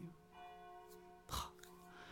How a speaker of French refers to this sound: Je sais pas trop si vous entendez beaucoup les cloches, mais.